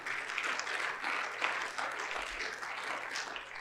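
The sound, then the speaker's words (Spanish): Sustained applause from a church audience, clapping for the Lord: a dense wash of many hands clapping at a steady, fairly even level throughout, with no talking over it. “Denle un aplauso fuerte al Señor porque Él hizo de nosotros un plantillo.”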